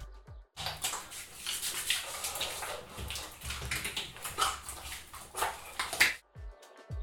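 Wet, squelchy rubbing of lathered shampoo between hands and onto the head in a bathroom, a continuous scrubbing with soft sloshy texture for several seconds, no voices.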